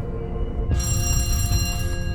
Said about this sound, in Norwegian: Det er en eh, helt vanlig alarm som runger utover hele campen, og eh, som eh, da gir beskjed om at alle som, er, som har en rolle i terrorrespondering, skal umiddelbart gjøre seg klar til utrykning eller oppfølging fra camp.